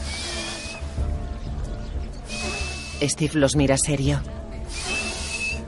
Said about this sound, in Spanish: ¿Por qué suena así? El silbido del moco. El moco está seco y es como un silbato.